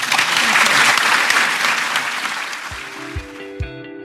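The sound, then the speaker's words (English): An audience claps steadily in dense, loud applause to thank a speaker after a talk, gradually thinning out, while a few soft musical notes begin to play as the clapping fades. “please join me in thanking Dr. Masood”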